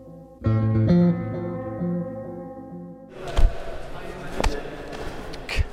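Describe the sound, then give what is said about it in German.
A sustained tonal sound gives way to a flurry of sharp thuds and slaps from karate sparring, one person attacking a training partner with the left fist while the partner blocks, twists the arm and counterstrikes. A few louder impacts stand out over scuffling movement. “Was ihr hier hört, das bin ich beim Karate.”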